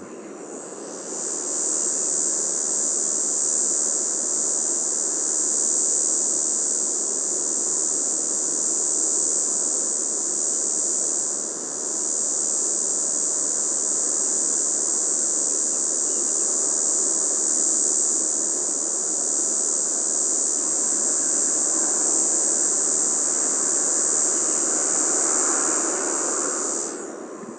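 A four-spotted cicada sings from the top of a Scots pine about 20-30 metres away at 10 a.m., in one continuous, high-pitched buzzing drone, steady and loud for the whole stretch, with only a brief dip midway and no voices.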